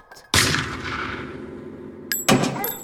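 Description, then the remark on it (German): Two loud shots from a blank-firing gun, the first sharp bang ringing out with a long reverberant tail, followed about two seconds later by a second punchy shot. “Ja, die Schießerei nicht aus. Hört auf. Wieso? Bam! Ist doch bloß ein Knallkaliber.”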